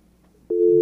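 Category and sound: signal or alarm, telephone busy tone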